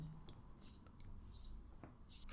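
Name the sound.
birds chirping in background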